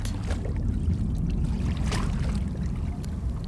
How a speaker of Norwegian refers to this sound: så de må ro. Men båten har ikke åregafler, så den er nesten umulig å manøvrere.